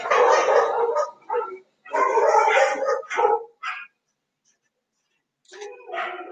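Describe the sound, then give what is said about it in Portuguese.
Several neighborhood dogs along the street bark and yelp at a garbage truck in frantic, overlapping bursts, loud, with a short pause before the barking starts up again. “Caminhão do lixo, a cachorrada da rua inteira surta, não tem outra.”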